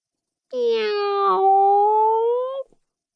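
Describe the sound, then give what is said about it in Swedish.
A single long, drawn-out, loud cat meow from inside a cat carrier, holding a steady pitch for about two seconds with a slight rise and a brief catch near the middle, then cutting off; the cat has just woken up. “hördes det från kattburen. Kattrackaren hade vaknat och trodde att någon pratade med honom.”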